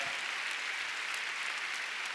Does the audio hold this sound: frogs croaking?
no